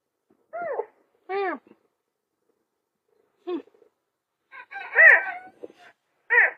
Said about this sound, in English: Serval, Serval, oh my god. You're a fucking annoying cat.